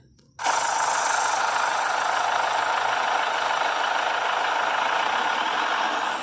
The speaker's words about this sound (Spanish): asómate un momentico para que me escuche este motor, que es que no, no sé qué tendrá, escúchalo a ver.